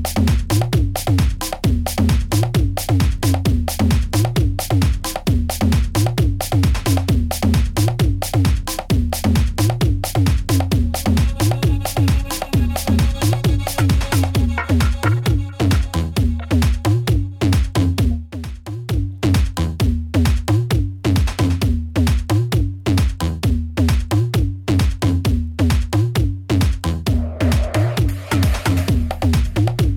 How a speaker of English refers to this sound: it's the sound of UK Funky.